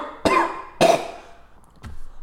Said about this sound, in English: she's just coughing